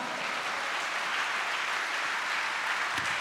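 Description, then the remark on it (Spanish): A steady wash of applause from a crowd giving applause to God during a Spanish-language sermon, many hands clapping at once in a dense, even roar that holds level for the whole few seconds with no voices standing out. “¿Cuánto le dan un aplauso a Dios por eso, amado hermano?”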